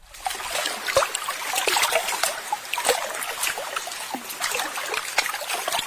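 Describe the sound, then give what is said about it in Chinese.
Water flows and trickles steadily, with a bright, bubbling hiss and frequent small splashes and drips scattered throughout, no voices present. “我喜欢听水流动的声音。”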